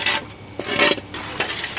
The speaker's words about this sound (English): Two men with shovels are scooping asphalt into a hole the size of a large serving plate.